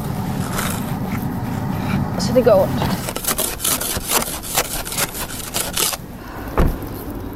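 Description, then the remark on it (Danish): Repeated rough scraping strokes across a hard surface as someone scrapes ice off their car windshield, with a steady rhythm, while a person talks briefly over it. “Afise min bil her.”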